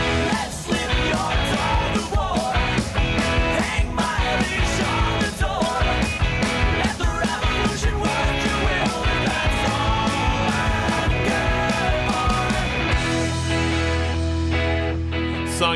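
A loud, dense recorded song with a driving, steady beat and full band sound plays throughout, then settles into a sustained, ringing final chord for the last few seconds.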